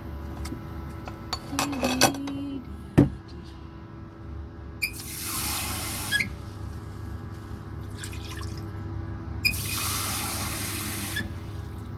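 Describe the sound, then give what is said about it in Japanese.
Hot water is poured into a cup in two steady hissing streams, with a few sharp ceramic clinks at the start as the cup is set down and handled. “お湯入れなきゃだ”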